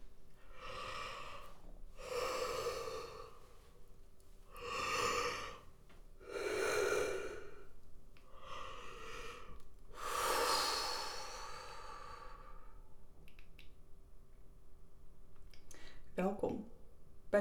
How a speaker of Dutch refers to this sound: Lekker overdreven gapen en wrijf dan ook even met je hand langs je keel. Gewoon voorzichtig, niks geforceerd. Om even oh, te voelen van oké, je hebt daar misschien spanning. En door te gapen kan dat loskomen.